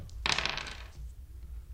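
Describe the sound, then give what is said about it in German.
Dice clatter briefly across a hard tabletop, a quick rattling burst of small clicks that settles within about half a second, fairly loud, followed by quiet background noise. “Uns hätte man das Würfeln verbieten.”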